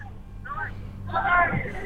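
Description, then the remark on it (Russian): Voices shout from somewhere along a street behind the speakers during street protests in Belarus, rising in two bursts over a steady low outdoor rumble, with a louder stretch of cries toward the end. “О, Парни, слышим крики. За нами.”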